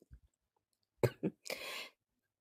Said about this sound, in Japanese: あ、ちょっと咳が出て。あ、ごめんね。